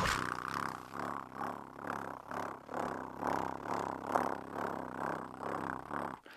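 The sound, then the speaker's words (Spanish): A person imitates a cat's purr while exhaling, a low rumbling rattle that swells and fades in a steady rhythm of soft pulses for several seconds, with no talking. “nada más es como cada que exhales, ronronea, cada que inhales, no ronroneas, y algo como...”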